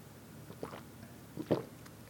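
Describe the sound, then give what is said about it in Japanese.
Two soft, wet gulping swallows as a speaker drinks water, one around the middle and a slightly louder one shortly after, with quiet background noise and no talking. “ちょっと待ってください水飲みます”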